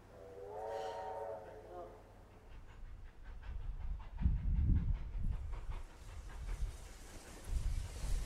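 A steam train on the line from Castlemaine to Maldon sounds a brief whistle, then rumbles along the rails with heavy, rhythmic chuffing that swells and fades. No one speaks.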